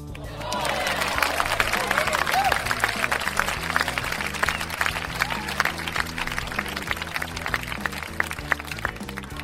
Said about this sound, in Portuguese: eu vou pedir a ele uma salva de palmas para o Bahia.